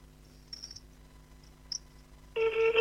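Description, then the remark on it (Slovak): A phone ringback tone, from a call to a friend for his birthday, starts abruptly near the end, a steady loud electronic beep that holds to the close, after a quiet stretch with a few faint chirps and no talking. “Už to ještě to nezvoní, ale bude. Už to zvoní.”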